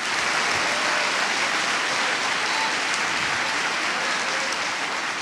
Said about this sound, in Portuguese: Você consegue aplaudir o Senhor pela sua palavra agora?